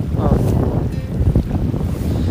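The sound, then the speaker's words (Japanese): Steady wash of ocean waves on a beach, recorded while walking along the shore during a break in underwater search training at sea, fairly loud, with gusty wind buffeting the microphone throughout and a low rumbling undertone. “今ちょうどもう海の中で水中捜査訓練っていうのをやってで一息ついて浜辺で、ね、波の音とかもしかしたら聞こえてるかなと思うんですけどみんな休んでるところにちょっとね散歩しながら、この音声を撮っています”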